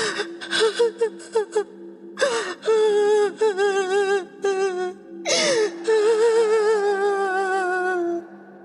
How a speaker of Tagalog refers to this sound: Nang gabing yun, nakahiga ako ng diretso sa matigas kong kama nang makarinig ako ng kakaibang ingay. Parang may umiiyak na babae.